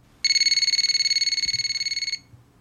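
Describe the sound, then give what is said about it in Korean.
A single electronic telephone ring at around 3 a.m. one night in May: a bright, rapidly warbling trill lasting about two seconds, loud, then stopping abruptly, with no one speaking. “그러던 5월 어느 날 새벽 3시쯤에 전화가 울리더군요.”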